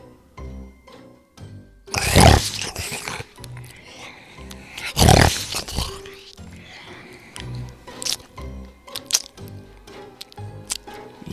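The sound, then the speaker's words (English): Snarling growls and wet, squelching chomps, apparently voiced by a person imitating a wolf devouring prey, with two loud roaring bursts followed by smaller crunching and slurping noises. “And with this, the wolf leaped out of bed and ate the girl all up.”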